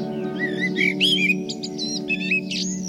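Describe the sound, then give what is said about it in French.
A blackbird sings a run of clear, fluting, warbled phrases, continuous, over a steady low humming drone in the background. “Le jour se lève et j'irai bien chanter avec le merle d'à côté.”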